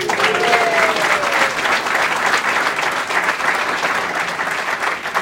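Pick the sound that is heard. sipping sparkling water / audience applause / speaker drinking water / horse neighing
audience applause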